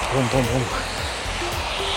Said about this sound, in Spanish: Espero que se escuche bien cuando voy pasando esta. Voy muy recio. Sé que hay mucho agua, mucho viento.